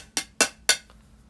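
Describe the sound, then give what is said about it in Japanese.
Three sharp, evenly spaced taps on the side of a tea canister, each a short bright knock that fades quickly, with a fainter fourth tick trailing after. No voices. “側面はこういう音あんまならないですね”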